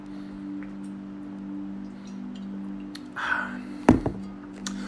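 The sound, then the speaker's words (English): Someone getting a drink of water: quiet handling and a brief soft gurgling sip, then a sharp thunk as a cup is set down, over a steady low electrical hum with no talking. “But let me get some water.”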